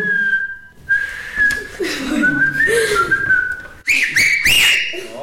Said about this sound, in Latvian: Tā ir svilpošana